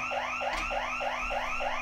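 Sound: school alarm ringing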